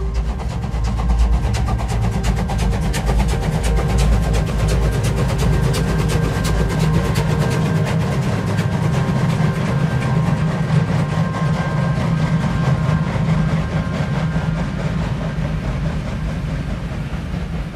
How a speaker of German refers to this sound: Talaufwärts nahm der kleine Zug stöhnend seinen Weg.